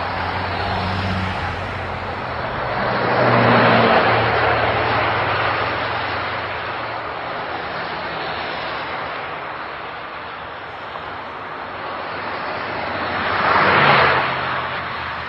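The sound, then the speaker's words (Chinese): A large vehicle's engine rumbles steadily under a wash of broad road noise as the driver closes the door and the No. 8 bus in Chengdu pulls away, swelling louder twice as it drives off. No one speaks. “司机关门，八路车渐渐地驶离了我视线。”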